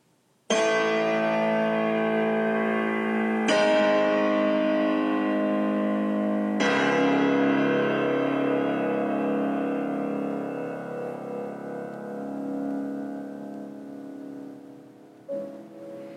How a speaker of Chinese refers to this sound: 在开头这三个小节的低音之后呢，我们听到行板在高音区飘散出清亮的钟声，右手内声部的和弦吟唱着圣咏曲调，在高低两端的钟鸣之间来回摆动